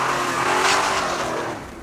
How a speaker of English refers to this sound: Several minutes after watching him drive away, they sprinted to their car as fast as they could, jumped in, and peeled out before they had even shut the doors.